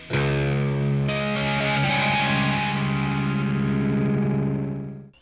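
A heavily distorted electric guitar plays a loud, sustained intro riff with thick harmonic chords and a steady driving rhythm, filling the whole stretch before cutting off abruptly; no voices.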